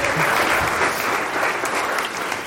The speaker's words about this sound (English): You can go back to your seat and we're going to give you a round of applause.